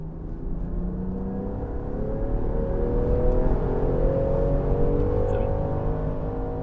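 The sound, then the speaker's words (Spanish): A petrol SUV engine accelerating hard, its steady loud drone climbing gradually in pitch as the revs build over several seconds, with no talking. “El motor de gasolina nos da esto, un empuje bastante rabioso y aceleración, con lo cual vamos a estar cubiertos para poder movernos con agilidad, eso sí, como digo, a costa de un consumo alto.”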